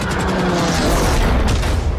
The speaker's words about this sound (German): Diese kurze Episode verblasst aber schnell gegenüber der etwa neunstündigen bleihaltigen Achterbahnfahrt voller Explosionen und Special Effects, die die Spielenden drumherum erleben.